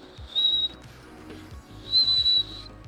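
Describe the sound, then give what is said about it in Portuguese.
A voice imitates a man's wheezy breathing: two drawn-out breaths, each carrying a thin, high whistle, with a soft pause between them. It sounds moderately quiet, with no talking. “Sabe aquela respiração que tem um leve assobio, assim, ó?”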